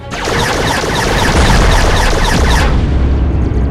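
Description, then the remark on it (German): Spaceship laser cannons fire in a rapid, rhythmic volley of loud blasts over a thick booming roar, then stop abruptly, leaving a lower rumble trailing off. No one speaks. “Laser sind online. Endlich.”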